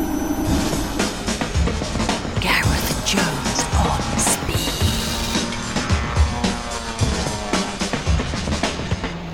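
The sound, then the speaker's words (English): Zog's electric lightweight sports car drives hard, its engine noise a steady dense roar broken by sharp, high tire squeals as it skids, with no one speaking. “Well, until Zog's remarkable revolutionary electric lightweight sports car comes available, the rest of us are stuck with the electric cars that we've driven now.”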